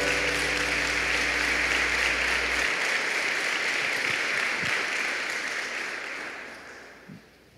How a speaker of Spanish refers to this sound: Fuerte ese aplauso para el Señor, por favor.